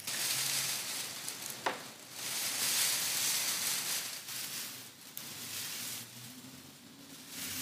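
Magnetic tape pulled out of a cassette and crumpled into a ball is gently moved back and forth to imitate rustling leaves, producing a steady, hissing rustle like dry leaves, with small swells and one sharp crinkle, and no voices.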